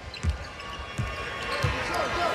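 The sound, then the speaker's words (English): A basketball is dribbled up top by Nick Young during a basketball game on a court: three heavy low thumps in a slow steady rhythm over a constant murmur of crowd noise and faint talk. “Nick Young with a dribble up top.”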